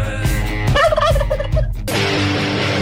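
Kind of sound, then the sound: animal, turkey gobbling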